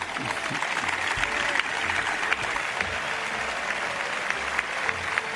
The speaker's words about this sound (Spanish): Se llevó la ovación de los ahí presentes.